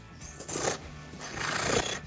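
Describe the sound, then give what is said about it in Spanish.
Someone mimics an engine revving with their voice: a short, breathy roar, then a longer, stronger one that swells and cuts off, with no talking. “Y acá viene mi, secuencia de imitación de ruidos de motores, ¿te parece?”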